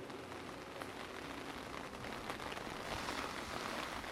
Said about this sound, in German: Das Wetter ist typisch an diesem Tag, windig Zwischendurch regnet es heftig.